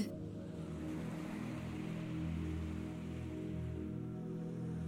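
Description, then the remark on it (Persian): A steady, continuous wash of ocean waves with a deep, rumbling low end, holding an even level throughout with no distinct breaks, and no voices. “گهگاه صدای مرغای دریایی که امواج رو همراهی میکنن میشنوی هیچ صدایی جز صدای طبیعت، امواج و پرنده ها به گوش نمیرسه.”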